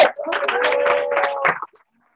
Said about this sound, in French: Est-ce qu'on peut applaudir s'il vous plaît